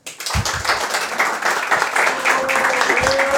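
A live audience breaks into sustained applause, dense overlapping claps filling the room at a steady, fairly loud level, with a few faint voices and a brief whistle-like tone in the mix.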